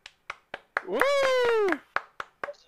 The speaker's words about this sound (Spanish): Fuerte el aplauso, repre él.